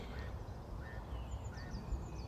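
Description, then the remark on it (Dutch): Birds call outdoors during a walk in a string of short, high chirps and whistles, fairly faint, over a steady low rumble of wind or background noise. No one speaks. “En de vogels helpen mij”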